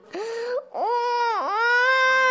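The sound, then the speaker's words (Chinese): A voice imitates a young dinosaur, Liang Tai, crying as he runs toward his Maiasaura mother: a short high-pitched wail, a brief break, then a longer loud, wavering sob that dips once before rising again. No speech. “慈母龙妈妈听到了哭声， 呃，是梁太回来了，怎么那个样子？”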